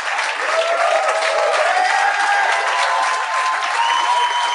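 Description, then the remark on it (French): Sustained audience applause for the show's guests, a dense steady clatter of many hands clapping at an even loudness throughout, with faint cheers and whistles mixed in and no talking over it. “J'aimerais ça qu'on donne une bonne main d'applaudissements à mes invités, mesdames et messieurs.”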